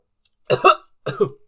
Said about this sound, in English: I just coughed on her.